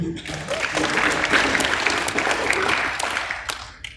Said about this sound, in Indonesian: Boleh tepuk tangan dulu.